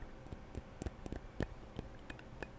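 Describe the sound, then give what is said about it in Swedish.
Fingernails tap lightly on a perfume bottle in a quick, uneven patter of small clicks, quiet, with no one speaking. “Så vi kan lyssna på lite tapping här på parfymen.”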